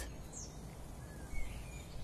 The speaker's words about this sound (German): Stell dir nun vor, dass du in der Natur spazieren gehst. Die Vögel zwitschern, die Luft ist klar und frisch